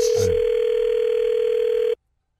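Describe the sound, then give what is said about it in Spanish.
A steady, unbroken telephone dial tone after a phone call is cut off holds one mid-pitched note for nearly two seconds after a brief burst of noise at the start, then stops abruptly into silence. “Ya se me está cortando la comunicación, oiga.”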